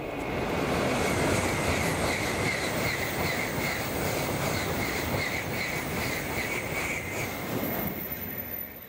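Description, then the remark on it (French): A Shinkansen high-speed bullet train in Japan roars steadily and loudly for several seconds, a dense rushing rumble with a faint high whine. No sharp boom stands out, and no one speaks. “On le surnommait comme ça parce que quand le train passait dans des tunnels, ça créait un boom sonique à travers la ville, donc un son très très fort.”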